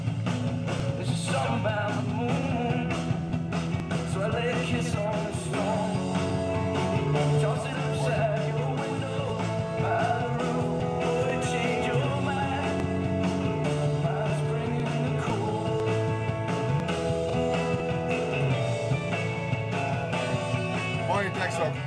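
A full-band rock song plays steadily and loudly throughout, with driving drums, sustained guitars and bass, and a male singer's vocal line carried over the dense mix.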